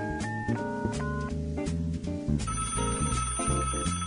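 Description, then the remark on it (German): A telephone ringing with an incoming call from a Berlin number, a loud, melodic electronic ringtone, bright repeated notes cycling in a steady pattern for several seconds, with no one talking over it. “Na, ruft denn da an.”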